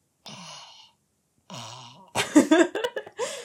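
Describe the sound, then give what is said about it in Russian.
A person imitates the odd, strained whine of their own cat, which cannot meow properly, making two drawn-out, moaning cries, then dissolves into bursts of laughter. “Э, у нас здесь, видно, кошка не умеет мявкать, она делает так.”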